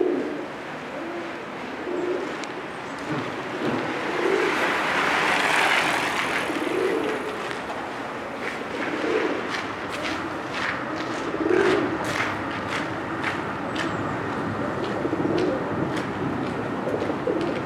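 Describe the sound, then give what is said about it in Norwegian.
A pigeon coos repeatedly in low, soft, throaty phrases spaced a few seconds apart, over a steady background hiss with a swell of rushing noise and scattered faint clicks, as it walks among people getting off the Skien train, about a meter from their feet. “det plutselig en due som bare, da kom alle menneskene av Skienstoget”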